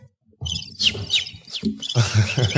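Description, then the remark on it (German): A bird chirps and tweets in a quick, busy string of high, bright calls with sharp downward sweeps, fairly loud, over a low background rumble. “Achtung, Vögelchen”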